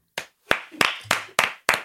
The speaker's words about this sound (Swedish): vi får ha en nivå på applåderna ja. här inne